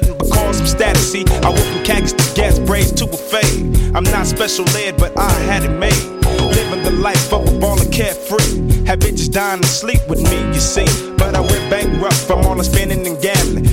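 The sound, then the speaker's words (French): A loud rap track by street rappers plays continuously, with a steady, punchy beat and layered melodic instruments filling the mix. No one speaks over it. “ce que vous entendez, en fait, c'est des mecs de la rue qui rappent”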